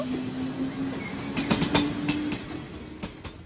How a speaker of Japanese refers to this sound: ね、あのちゃんと左から、ね、そうなんですよね。来た電車が走り去っていく様子が聞こえたのではないでしょうか。